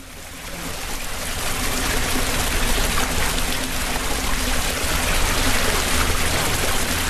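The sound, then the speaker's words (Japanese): Hot spring water gushes steadily into a large, spacious bath in the Kagaya's large public hot spring bath, a continuous, even rushing and splashing that rises slightly at the start and then holds without a break. No voices are heard. “えー、この音が聞こえますでしょうか、えー、とくとくと温泉が湧き出ておりますね、えー、大変広いゆったりとした湯船が、えー、私の目の前に広がっておりますが”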